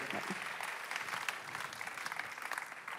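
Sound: audience applause and cheering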